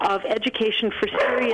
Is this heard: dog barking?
yes